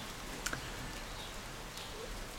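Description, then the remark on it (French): A few brief, faint bird chirps sound outdoors over a soft, steady hush of falling rain, with two quick calls close together early on and another later. “On entend quand même toujours quelques oiseaux.”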